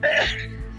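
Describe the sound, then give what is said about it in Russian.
A mother lets out a single sharp sneeze, a quick breathy blast that fades into a short trailing exhale, with no talking around it. “Будь здоров, мам.”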